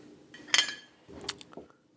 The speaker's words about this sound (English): now now three and a half shots of Neeley Family Distillers Moonshine at 120. I'm gonna pour this.